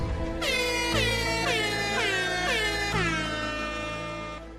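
A loud, brassy air horn sound effect blares in a rapid series of about seven overlapping blasts, each with a slight downward pitch swoop, holding steady for several seconds before cutting off.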